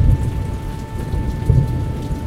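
Heavy, steady rain pours down amid a low, rumbling thunderstorm as Hurricane Harvey, a Category 4 storm with 130 mile an hour winds, hits the Texas coastline; deep rolls swell and fade under the constant hiss of water. No voices are present.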